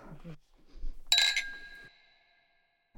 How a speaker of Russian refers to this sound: Взял в руки бокал, сейчас чокнемся, и раздастся вопрос.